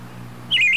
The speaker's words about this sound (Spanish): ¿Pero qué pusiste? ¿Río pájaro? Uy, ya sé lo que es esto.